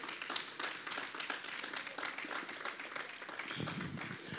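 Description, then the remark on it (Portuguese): An audience applauds the Lord together, a dense, steady wash of many hands clapping at moderate volume throughout, with faint voices mixed in toward the end. “Você pode aplaudir o Senhor, pode aplaudir o Senhor.”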